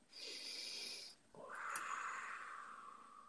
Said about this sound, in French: Euh, alors, on va faire une respiration.